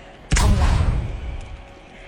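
violent explosion

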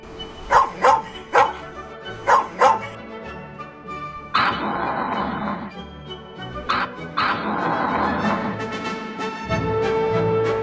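dog barking

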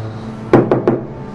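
knocking on a door

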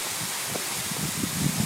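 waterfall

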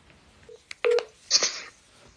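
telephone number being dialed

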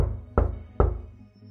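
knocking on a door

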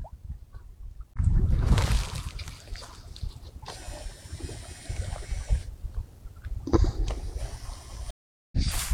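water

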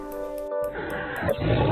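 tiger roar

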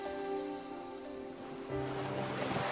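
ocean waves

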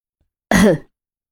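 throat clearing

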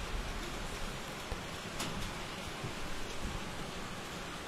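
rain falling

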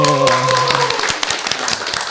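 audience applause

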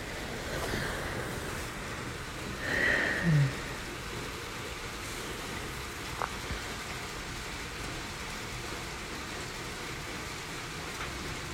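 rain falling

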